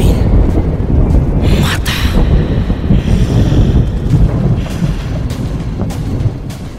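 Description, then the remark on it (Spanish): A thunderstorm: a loud, constant low roar and rumble with several sharp crackling bursts scattered through it, like lightning cracks, and no pause in the noise. “Y la negrura se incendió con cientos de relámpagos que imitaban la furia de los aluches. ¡Chuck! ¡Trueno!”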